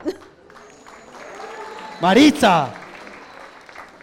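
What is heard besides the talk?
audience applause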